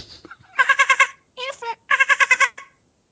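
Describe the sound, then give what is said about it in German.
A voice imitates dolphin squeaks: three bursts of rapid, high-pitched chattering squeals, each made of quick pulsing clicks, with short pauses between and no other talk. “Aber die Interpretation des Delfins war sehr schön.”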